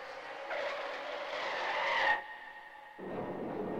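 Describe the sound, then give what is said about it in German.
A race car whose brakes failed skids with a loud, rising screech of tires for about two seconds, then cuts off abruptly into a duller rumbling crash and scraping noise as it hits a stack of tires at the edge of the track at 107 km/h. “Dein Mann rast mit 107 kmh in einen Reifenstapel am Streckenrand.”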